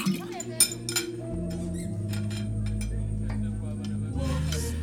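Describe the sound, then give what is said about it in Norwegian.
Bright clinks of crystal wine glasses and old silver cutlery ring out in scattered bursts near the start, over a steady low hum and faint background murmur, like a dinner table. “Bestikket er i gammelt sølv og tallerkenene gulnet av velde. Vi drikker vin av krystallglass.”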